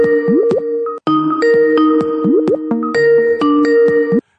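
A loud phone ringtone plays a bright electronic melody of chiming tones and pitch sweeps, running steadily for several seconds with a brief pause near the start, no voices.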